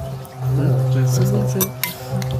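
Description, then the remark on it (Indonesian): Two or three bright, quick clinks of glasses touching in a toast ring out over a steady murmur of voices in the background. “semangat kata orang mah cheers dulu cheers”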